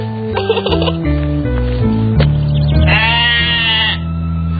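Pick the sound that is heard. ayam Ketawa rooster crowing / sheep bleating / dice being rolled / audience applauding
sheep bleating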